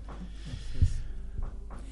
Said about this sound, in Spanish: Yo eh, pido disculpas por los sonidos de martillo que hay. No es que estamos martillando en el estudio, pasa que justo se da que un vecino de cerca. está, y las refacciones,